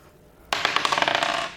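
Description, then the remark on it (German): Dice clatter onto a hard table, a sharp initial impact followed by a rapid series of rattling, bouncing clicks that gradually settle, fairly loud, with no voices. “wir können heute direkt loswürfeln, da du dich nicht mehr vorstellen musst. Nö, ich würfel mal.”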